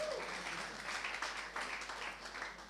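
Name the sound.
audience clapping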